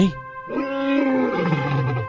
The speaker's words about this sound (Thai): สิงโตได้คำรามด้วยความโกรธ